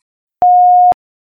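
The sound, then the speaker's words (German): A single steady electronic beep, the answering machine tone, lasting about half a second, clear and fairly loud with a clicky onset and cutoff, surrounded by silence. “Please leave a message after the tone.”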